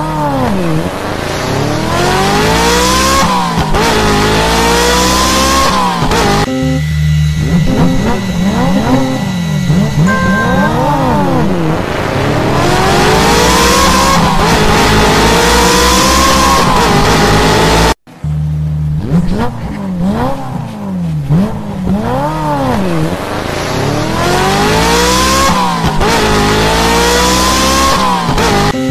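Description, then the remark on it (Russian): Loud race car engines rev and accelerate continuously, their pitch repeatedly sweeping up and down as several motors overlap, with a brief cut near the end before the roaring resumes. “Так, гонки от Кувалдару.”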